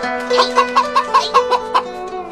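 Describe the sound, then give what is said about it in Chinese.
A rooster clucks in a quick, steady series of about eight sharp, mid-pitched bursts, agitated and fairly loud, while someone tries to catch it, with no talking over it. “哈哈，我来捉大公鸡，我来捉大公鸡。”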